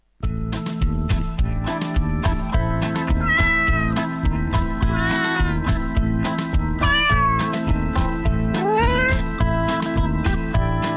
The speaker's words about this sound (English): Yowlin', yowlin', yowlin', hear them cats a howlin'. Can't they quit that meowing inside?